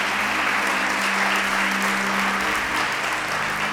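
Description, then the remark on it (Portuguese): A church audience applauds Jesus steadily, a dense, even wash of many hands clapping at constant loudness throughout, with a faint low hum beneath and no voices standing out. “Eu, se fosse você, aplaudia Jesus só por causa disso.”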